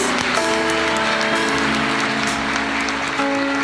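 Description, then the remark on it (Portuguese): An audience applauds the Lord steadily in praise, a dense, sustained wash of clapping from many hands, with sustained musical tones, like organ or keyboard chords, underneath. “Glorifica o nome do Senhor, aplaudam a Ele em nome de Jesus.”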